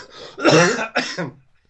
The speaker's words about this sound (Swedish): Eftersom jag bara hostar så kan du fortsätta, du skulle säga något här.